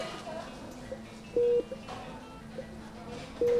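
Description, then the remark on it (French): Technical surgical machines used by the surgeons during an operation beep with two steady electronic tones about two seconds apart, with fainter short blips between them, over a low background hum and murmur. “Alors dans les machines, il y a les machines pour respirer, les machines pour la tension, et puis il y a aussi bien sûr euh, euh, les machines que nous on utilise, techniques, qui font parfois le bruit que là on est en train d'entendre.”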